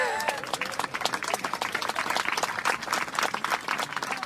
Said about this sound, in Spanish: Quiero que le brinden un caluroso aplauso